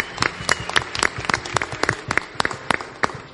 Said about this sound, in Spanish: Un aplauso a este hombre.